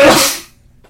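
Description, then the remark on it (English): A single loud sneeze, a sharp breathy burst that fades within half a second and leaves near silence. “God bless you.”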